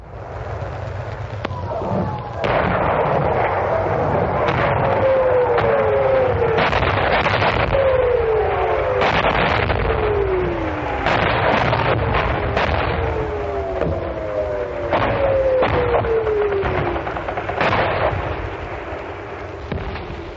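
A German Nebelwerfer rocket launcher barrage, which Allied soldiers called Screaming Mimis, fires continuously at Overloon. Rising and falling shrieks overlap with a steady stream of loud, booming explosions and blasts. The screaming rockets repeat in waves, and no voices can be heard.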